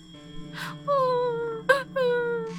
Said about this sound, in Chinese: 我注意到，就是在他们讲话开始没多久，就是那声音像是有顾虑的女人捂着嘴哭泣的声音，很短促